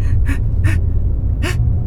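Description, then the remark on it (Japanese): A person imitates a comedy-sketch style sneeze with three short, sharp breathy bursts, fairly loud, the last one separated by a brief pause, over a steady low background hum. “いい騎士ってくしゃみするのむずくない”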